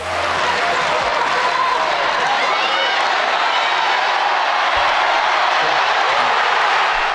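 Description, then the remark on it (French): A packed arena in Montpellier erupts in sustained cheering and applause after the last ippon of the women's European judo championship, a dense roar of shouting and clapping that stays loud and steady throughout without letting up. “Et bam Le dernier hippon de ce championnat d'Europe pour les féminines fait résonner l'aréna de Montpellier et crier de joie les spectateurs.”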